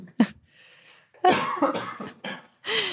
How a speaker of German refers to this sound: muss gerade husten.